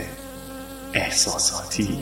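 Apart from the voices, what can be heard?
bee buzzing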